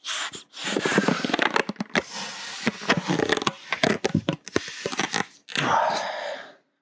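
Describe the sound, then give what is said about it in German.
Someone blows up a balloon: crackly rubbery squeaks and stretching noises come in quick bursts, then a long, steady puff of breath pushes air into it near the end. “Ich kann, während die Aufnahme läuft, auch einen Luftballon aufpusten.”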